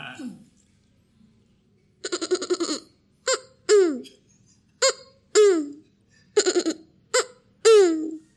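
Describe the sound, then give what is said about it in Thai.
Someone mimics a tokay gecko's call as a trial: a quick rattling trill, then a series of loud, repeated two-part croaking calls with short pauses between them. “เราเป็นการทดลองของวันนี้นะครับ แล้วเดี๋ยวคุณผู้ฟังช่วยมาคอมเมนต์ด้วย แล้วก็เดี๋ยวเผื่อถ้าถ้าดีเราเปิดห้องในคลับเฮาส์แข่งทำเสียงตุ๊กแก”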